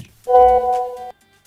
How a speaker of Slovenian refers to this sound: WhatsApp.